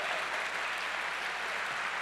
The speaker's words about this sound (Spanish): ¿Cuántos dicen amén? Dele fuerte ese aplauso al que vive.